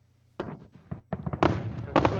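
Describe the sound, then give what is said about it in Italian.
Fireworks crackle and pop in a rapid, irregular string of sharp bursts, growing denser and louder toward the end, after a brief low hum at the start. “Senti, senti come Cos'è? scoppietta. Eh, sì, fuochi d'artificio.”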